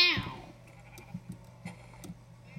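animal, video game sheep bleating

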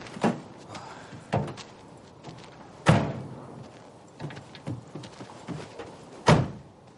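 vehicle, car doors slamming shut

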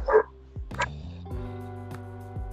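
animal, distant dogs barking

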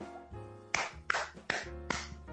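human body sound, hand clapping

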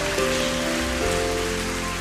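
crowd, audience applause

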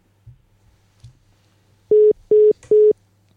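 signal or alarm, telephone busy tone

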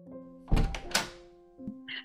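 household object, knock

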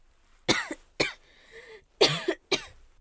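human body sound, coughing

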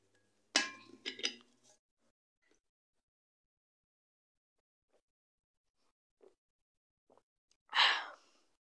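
household object, drinking water

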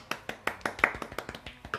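crowd, brief applause

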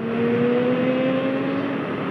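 vehicle, motorcycle engine revving

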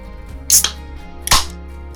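food or drink, beer can being opened

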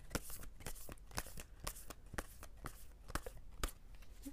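household object, oracle cards being shuffled

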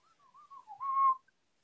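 human body sound, person attempting to whistle

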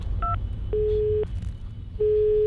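signal or alarm, phone call dialing tone

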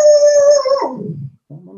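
animal, dogs howling

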